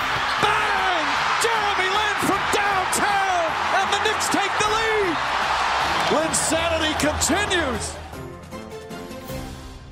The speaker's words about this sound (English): the roar of the crowd, you know, there were a lot of Knick fans there, but it was mostly Raptor fans. And the Raptors were, you know, by, by this point, they were really popular. It was one of the great atmospheres in the league.